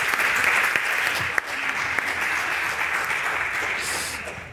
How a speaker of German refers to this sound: Also bitteschön. Applaus